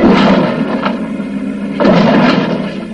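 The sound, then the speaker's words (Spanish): Several heavy, booming thumps land on the roof of a Model T car, struck with tires by Professor Brainard from on top of it, spaced irregularly over a few seconds, loud with a dull rumbling resonance and no voices. “De pronto siente un golpe en el techo del coche.”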